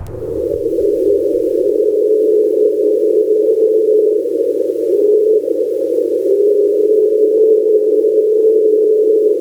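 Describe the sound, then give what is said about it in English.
A loud, unbroken droning tone from an underwater hydrophone recording, known as the train sound, steady like a train horn held for the whole stretch, with a faint low rumble only in the first seconds. “Then here's one that's known as the train sound.”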